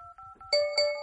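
Electronic dialing tones of a mobile phone, set to sound on, placing a call: a steady two-note beep, then brighter layered tones with a couple of sharp pulses, moderately loud, with no one speaking.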